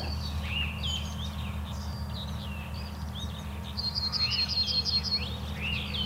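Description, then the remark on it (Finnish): Several birds singing over one another: a skylark as lead singer competes hard with a song thrush, while a yellowhammer tries to cut in. Busy, high chirping phrases and trills run continuously over a steady low rumble, with no talking. “Niin, se kilpailee jo kovasti laulurastaan kanssa. Kyllä, ja keltasirkku yrittää kans tuossa Joo.”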